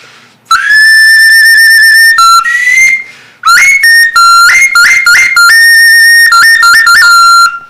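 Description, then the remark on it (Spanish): A clay funerary ocarina bearing a representation of death plays loud, breathy notes, shifting between lower and higher pitches with short trills and sustained tones, with brief pauses between phrases and no talking. “manera tenemos otro carina también funeraria con una representación de o de la muerte.”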